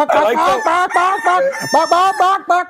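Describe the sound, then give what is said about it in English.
A loud chicken sound effect: a quick run of about eight clucking, crowing calls in a bouncy rhythm, heard alone with no talking over it. “Chicken.”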